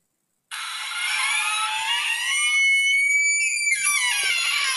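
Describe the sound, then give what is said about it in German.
A squeaky door swings open to let in a visitor, with a long, loud, high-pitched creak that wavers in pitch, then breaks into a second squeal that slides downward, with no voices. “wir sollten unsere Tür mal ölen.”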